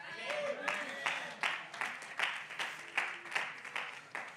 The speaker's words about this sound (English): You know what I call that back home? What you just did? I'm not rebuking you, but I'm embarrassing you. I call that a golf clap.